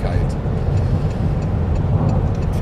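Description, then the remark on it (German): A steady, loud low rumble of a car driving at speed on a motorway, with constant road and engine noise filling the whole stretch without any break. “Da steht nämlich, dass die Autobahn an diesem Wochenende, auf der ich mich befinde, voll gesperrt ist.”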